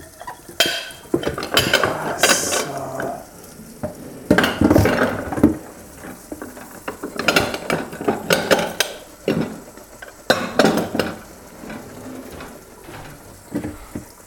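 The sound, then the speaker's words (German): Repeated rubbing and scrubbing strokes of a new microfiber cloth wiping paint residue off a surface, coming in irregular bursts with occasional light scrapes and knocks, and no talking. “Mein Gott, noch mehr Farbenreste. Die gehen gut weg mit dem neuen Mikrofasertuch.”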